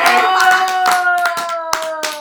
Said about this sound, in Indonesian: Ya, Ini yang ditunggu-tunggu sama ya, dia tepuk tangan yang panjang